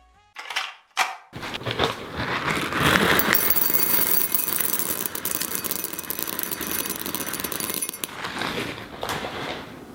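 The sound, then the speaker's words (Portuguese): A few quick clattering patters of small tapioca pearls for bubble tea dropping into a pan, then a dense, steady rustling hiss for several seconds before it thins out near the end. No one speaks. “Se você, se, você, puder colocar na edição depois, só, um, só o barulhinho da, das pérolazinhas caindo na panela e dele colocando água em cima dessas pérolas.”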